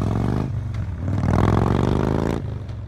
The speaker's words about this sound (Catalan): Ell, amb la determinació i l'estrèpit que la situació requeria, va arrencar la moto i es va perdre carrer enllà.